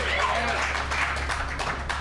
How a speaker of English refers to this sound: you gotta clap harder than that.